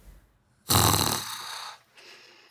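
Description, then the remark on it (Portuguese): A heavy, raspy breath drawn in loudly and slowly let out, followed by a fainter second breath, of a woman breathing heavily while asleep and dreaming. No talking. “Percebo pela careta que faz e por sua respiração pesada.”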